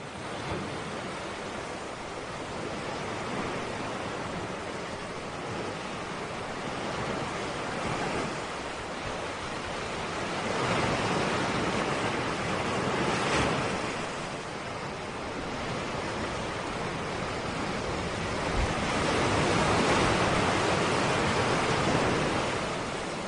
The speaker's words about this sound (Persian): بعد از اینکه ساحلشون رو ساختم یه فایل صوتی صدای دریا که حالا از قبل خودم ضبط کرده بودم البته که میشد پیدا کرد از توی اینترنت هم برشون فرستادم